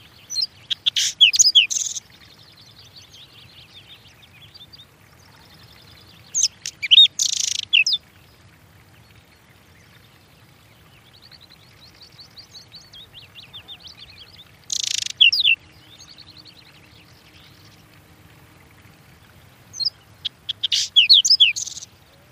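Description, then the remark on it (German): A whinchat sings short, scratchy, bright phrases four times with long pauses between, soft twittering filling the gaps, over a quiet low background hum, with no voices. “Win Chat song.”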